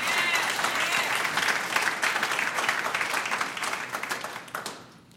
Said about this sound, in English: So let the people, let the redeem of the Lord, if you believe this is a season of praising, let the redeem of the Lord just clap your hands and give God some praise right now.